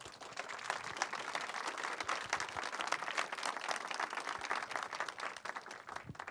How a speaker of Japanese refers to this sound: 皆さん盛大な拍手でお迎えください